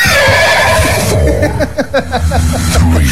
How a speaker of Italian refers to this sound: Il cavallo è arrivato.